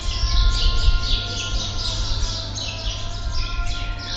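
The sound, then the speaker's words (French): Lots of birds chirp and twitter continuously in quick, overlapping bursts, fairly prominent, over a steady faint drone and a low background rumble. No one speaks. “Au son des oiseaux et de la prière”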